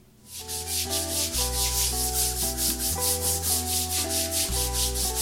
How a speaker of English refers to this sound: What you doing? Trying to get the stain out of the carpet. What is that? Red wine? Um, yeah, yeah, it's red wine.